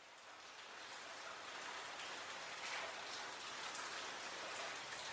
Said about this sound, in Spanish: Es una fría mañana. Llueve y el surazo llega hasta los huesos.